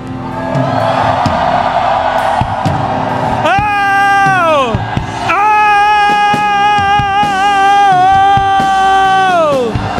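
A large audience shouts and whoops together in a loud, continuous roar as a cry confirming a covenant, with long, sustained high-pitched cries rising above the crowd near the middle and end.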